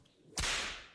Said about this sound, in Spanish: eh, cuando uno se equivoca, le pegamos un, un latigazo.